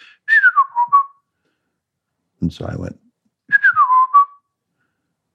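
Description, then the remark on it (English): A person whistles a short, warbling phrase imitating a blackbird's song that slides downward, speaks briefly, then whistles the same tune again, clear, in two matching bursts. “And uh, I don't know, I have no idea why at all, but I whistle back. I whistle back exactly the same tune.”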